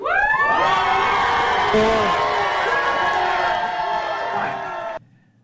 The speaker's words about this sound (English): As you could hear, it was met with a lot of cheers and some boos.